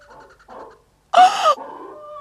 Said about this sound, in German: das ist das nur ein Hund.